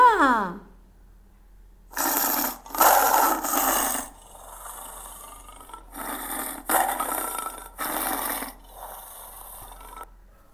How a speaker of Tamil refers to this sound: அடுத்தது நம்முடைய தேசிய விலங்கான புலி புலி என்ன செய்யும் உருமும் புலி உருமுவதை கேட்போமா